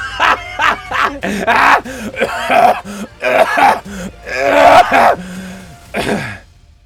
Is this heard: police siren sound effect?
no